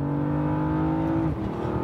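A deep V8 engine rumbles steadily at high revs, a low throaty drone that dips and shifts pitch near the end as the revs change. No one speaks.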